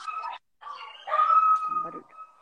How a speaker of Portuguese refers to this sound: Os cachorros.